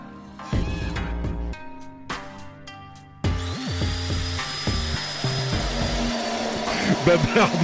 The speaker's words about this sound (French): Alors aujourd'hui, on va découvrir la nouvelle perceuse à percussion 1100 watts Black Decker.